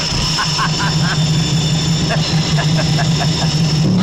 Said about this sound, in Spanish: el último de los V8. Casi nada, muchacho. Ocho cilindros, doble cámara. Dile lo del compresor. 600 caballos de potencia en las ruedas.